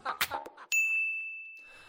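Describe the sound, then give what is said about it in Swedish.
A phone's electronic ring tone, as a call is placed, sounds once as a bright, clear ding that rings on and slowly fades, right after a short burst of muffled voices and noise. “så vi tar och slår en signal till någon som har lite bättre koll på Brynäs än vad vi har.”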